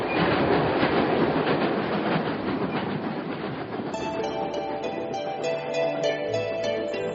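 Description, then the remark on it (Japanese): A train rumbles steadily along the rails with a dense, continuous roar and rhythmic clatter; partway through, bright tonal notes like a chime or melody join in over the running noise. “春に向かう列車が出発しました。”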